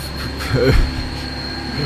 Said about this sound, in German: hey, normalerweise kommen hier nicht so viele laute Autos. Na doch, ab und zu kommt schon mal hier was äh, den Berg raufgekrochen.